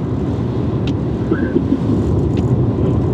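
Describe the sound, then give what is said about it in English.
A car driving fast on a highway at 95 miles an hour after traffic opens up, with a steady, loud rumble of engine and road noise filling the whole stretch and a few faint higher whines over it. No one speaks. “Traffic opened up, by the way. The pedal, uh, pedal to the metal right there, huh? No, pedal to the metal, 95 miles an hour.”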